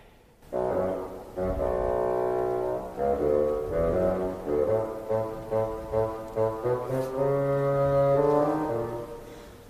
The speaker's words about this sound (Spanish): el abuelo por el fagot.